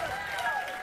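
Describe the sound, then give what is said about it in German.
A live concert crowd applauding, a steady wash of clapping mixed with cheering voices, holding at an even level through the brief moment. “Die Menschen applaudieren schon und sie werden jetzt gleich anfangen zu schreien.”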